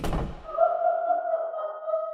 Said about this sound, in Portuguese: No entanto, a porta da casa fechou com uma batida alta.